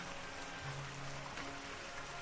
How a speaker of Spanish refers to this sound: Al día siguiente comenzó a llover incesantemente desde temprano. El cielo estaba totalmente cubierto de nubes negras la lluvia era ligera pero no violenta.